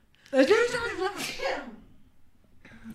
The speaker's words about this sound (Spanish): Adiós, va a estornudar.